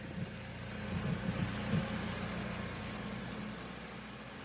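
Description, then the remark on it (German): Car brakes squeal outside in a steady, piercing high-pitched whine that holds for several seconds, sinking slightly in pitch over a low engine rumble. No one speaks. “Draußen quietscht gerade jemand mit seinen Bremsen.”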